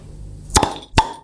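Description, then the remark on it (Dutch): Two sharp pops from Grolsch beer bottles being opened a fraction of a second apart, each with a short bright ring afterward, against quiet background hum. “Mogen we hem openmaken? Jij mag hem openmaken, dan doe ik met je mee.”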